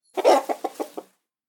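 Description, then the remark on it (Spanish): A chicken clucks in a quick burst: one longer squawk followed by four short, evenly spaced clucks, clear, with no other sounds around it. “lo recomiendo bastante y le doy cinco pollitos”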